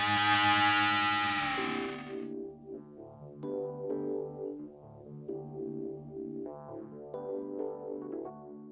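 A recorded rock song plays, opening with a loud, distorted chord crash before settling into a steady, rhythmic guitar-driven groove with effects-heavy tone, fairly loud and continuous throughout.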